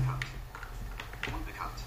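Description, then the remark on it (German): A few irregular taps on a computer keyboard, spaced unevenly over a couple of seconds, with a low steady hum underneath. “So, wir haben die sb tastatur wieder mal, die ich am meisten benutze.”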